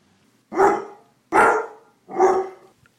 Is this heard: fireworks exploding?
no